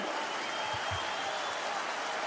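audience applause

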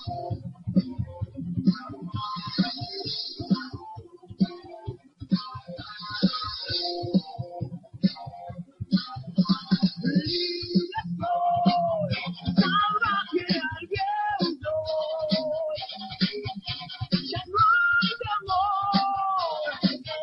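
rock song played

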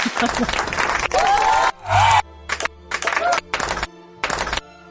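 applause sound effect

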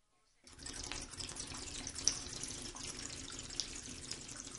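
water

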